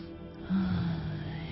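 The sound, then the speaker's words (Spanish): A single deep breath, a loud, breathy rush that begins abruptly after a brief quiet moment and holds steady, with no talking; a person inhaling and exhaling to stay calm before rhythmic breathing exercises. “Pero antes de hacer toda esa parte rítmica, inhalamos y exhalamos para estar tranquilitos, tranquilitas, en paz, en armonía”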